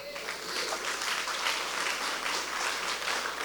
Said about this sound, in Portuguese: Dê um aplauso a Jesus.